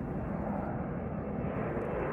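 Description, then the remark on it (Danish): An airplane's engines roar in a steady, dense rumble that stays even and fairly loud throughout, with no voices over it. “der, hvor man flyver med fly.”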